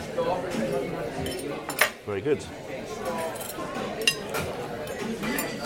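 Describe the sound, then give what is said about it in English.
Scattered clinks of cutlery and glassware ring out over a steady restaurant murmur during lunch as starters are eaten, with a few sharper taps standing out as a voice speaks briefly. “So, at what point, as we dig into the starters, at what point in your lunching do you eh, start fishing for ah.”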